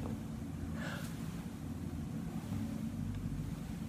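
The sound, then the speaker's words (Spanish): Steady, rumbling wind and sea surf roar continuously at a constant level on a beach, a dense low wash with no pauses. No voices are heard. “hay dos personas frente al mar.”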